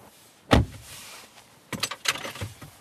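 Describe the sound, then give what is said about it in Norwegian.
Inside a new Mercedes E-Class car, a door shuts with a single solid thud, followed about a second later by a short flurry of mechanical clicks and rattles. Nobody speaks. “Vi er i en ny E-klasse Mercedes, der store deler av dashbordet er et avlangt nettbrett.”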